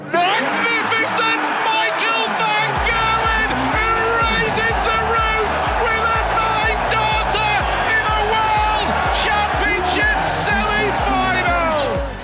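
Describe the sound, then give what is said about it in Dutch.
A packed darts arena roars with loud, continuous crowd cheering and chanting at a 2013 Van Gerwen match, while an announcer's amplified voice shouts over the din for the whole stretch, never letting up. “Je hoort eh, de, de, de speaker eh, eigenlijk roepen wat het publiek doet. Hè. Dus eh, het publiek gaat gewoon uit zijn bol.”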